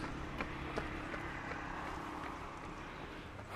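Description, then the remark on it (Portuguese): Quick, evenly spaced footsteps of a man jogging past, panting, on the sidewalk of Bandeirantes avenue in Belo Horizonte, over a steady wash of outdoor street noise. “Agora só porque eu falei, acabou de passar um cara correndo aqui no passeio, sendo que tem uma pista de Cooper, mas ele prefere passar ofegante sem máscara do meu lado do que usar a pista para pista de caminhada.”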